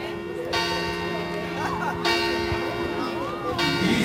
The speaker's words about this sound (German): Und dann läutet es 8 und wir gehen in die Kirche.